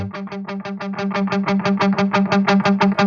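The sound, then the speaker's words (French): A mono electric guitar signal with reverb plays a steady run of quickly repeated picked notes over a sustained low tone, fairly loud with a slightly washed, effected tone and no voices. “thing that can happen a lot if you're working with mono guitar signals. Guitar. Donne-moi de la reverb.”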